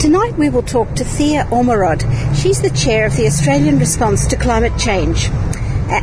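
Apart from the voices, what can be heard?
city street traffic noise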